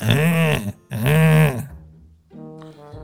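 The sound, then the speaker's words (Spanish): A voice imitates a jammed centrifugal pump grinding after a chain got caught in it: two loud, strained, buzzing bursts close together, followed by a softer, lower drawn-out tone as the sound trails off. “Eso parece cuando ruido de una moladora, ¿no?”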